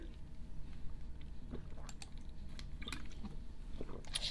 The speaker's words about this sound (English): I need to sip more drink